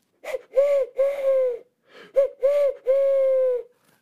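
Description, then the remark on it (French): A person mimics an owl's hoots in two quick sets of three, clear and fairly loud, with the last hoot of each set held longer. Nothing else is heard. “a ululé la chouette avec un énorme sourire sur son petit bec.”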